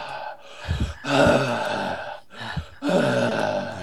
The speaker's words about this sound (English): Oops, somebody's somebody's breathing heavy. Breathing heavy.